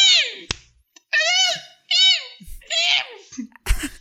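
A series of four short, shrill squeals, like a child's high-pitched little screams, rising and falling in quick bursts, with a couple of dull thumps in between and at the end.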